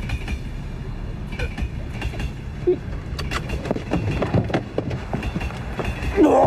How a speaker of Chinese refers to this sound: 一路风驰电掣，眼看着就要撞上路过的火车